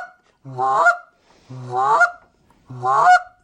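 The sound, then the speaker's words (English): Three loud goose honks blown on a molded resin goose call, evenly spaced about a second apart, each a harsh, reedy blast with no talking between them. “It's very easy to blow. Yeah, they're super easy. Like I said, they, the goose calls like they're like wood.”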